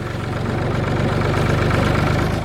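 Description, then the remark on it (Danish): A tractor engine idles steadily, a low rumbling drone with a regular chugging pulse that holds constant throughout, with no voices; the tractor is being used to drive a herd from behind. “Så begynder du at gænde dem lidt her med traktoren.”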